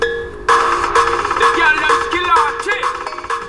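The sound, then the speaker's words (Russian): A mobile phone ringtone plays a bright, tuneful melody in steady repeating pulses, loud, with no voices over it, as a seller's phone rings with a call from his girlfriend. “В какой-то момент моему продавцу позвонила его девушка.”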